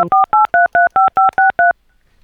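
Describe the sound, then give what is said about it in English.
A rapid, evenly spaced run of about nine telephone keypad DTMF beeps, each a short, bright two-tone chirp, loud and clean with no voices, ending in quiet, pressed while calling the Income Housing Institute's automated phone line and its staff directory. “Please press the first three letters of the person's first name.”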